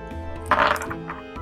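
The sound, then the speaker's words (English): A short rattling clatter of five dice being rolled, a quick burst of hard clicks and knocks that fades within half a second, over a low steady background hum. “Well, uh, five dice. Let's go.”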